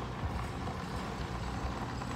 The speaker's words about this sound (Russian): Сейчас проедет большой грузовик и начнем, чтобы они нас не отвлекали.